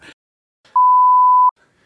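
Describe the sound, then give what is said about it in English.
A single loud, steady censor beep lasting under a second cuts over a spoken full name, with brief clipped fragments of a voice just before and after it. “We'll get it beeped out.”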